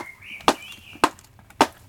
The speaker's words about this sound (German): Den einen Schuh haben wir tatsächlich mit unserer Beschichtung beschichtet. Mhm. Und du kannst ja mal testen, was passiert, wenn du mhm. ähm, die Schuhe jetzt einfach aneinander klopfst. Okay, warte. Ganz fest.